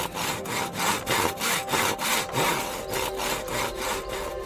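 A hand saw rasps steadily through wood in quick, even back-and-forth strokes, close and fairly loud, with a rough scraping texture and no voices.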